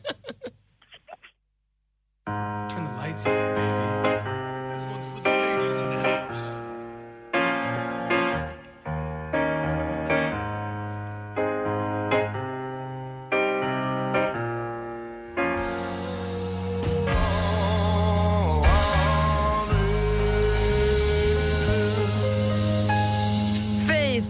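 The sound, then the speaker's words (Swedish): A pop song plays loud on Mix Megapol radio, requested by a listener on a building site in Örby outside Stockholm, opening with a brief silence before rhythmic chords and a steady beat, then swelling fuller with sustained melody in the second half; no talking. “Det var Tony som ringde in från bygget i Örby utanför Stockholm som ville höra den här.”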